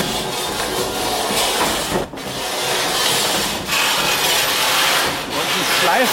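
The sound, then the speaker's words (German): A large wooden mill wheel in a mill turns with a loud, continuous grinding and rubbing noise, briefly dipping at regular intervals as it rotates. No one speaks. “Und jetzt bewegt sich hier das große Mühlenrad.”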